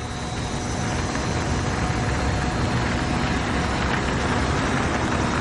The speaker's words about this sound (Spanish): Desde un terraplén, Ciro, Walter y tres jóvenes miran un coche que circula por el camino de tierra.